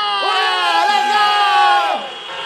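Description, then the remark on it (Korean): A group of voices in Chuncheon cheers and shouts together in one loud, sustained burst lasting a couple of seconds, then drops off abruptly into quieter background noise. “야 반응이 엄청 뜨거운데요.”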